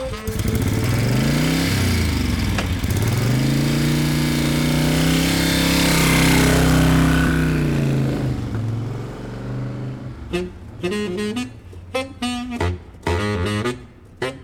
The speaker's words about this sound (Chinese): 哇，谢谢艾摩斯爷爷找到这个熟悉的声音，乖乖，你听这个就是一般的机车声音，你一定觉得这有什么特别的，乖乖。可是你不知道吗？最近如果听到这个声音停在你家门口，就表示哇，有好东西可以吃了。